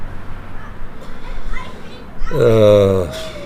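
Boys playing football outdoors on a football pitch in Šestajovice near Prague, chatter and open-air ambience, then one loud, high shriek near the end that rises sharply and holds for under a second.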